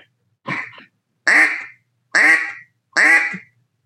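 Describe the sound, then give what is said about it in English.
A duck call blows four nasal, raspy quacks imitating a mallard hen on the water. The first is short and softer, then three loud, drawn-out quacks follow at an even, steady pace, with no talking. “And so all I'm listening for is I'm listening for like that mallard hen on the water. She sits there and goes, wah, wah, wah.”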